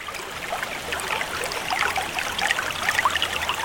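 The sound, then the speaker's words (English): A small stream trickles and babbles steadily, with bright little splashes and gurgles over a continuous watery wash. It stays fairly even throughout, with no voices. “One morning she came across a stream she'd never seen and decided to bathe.”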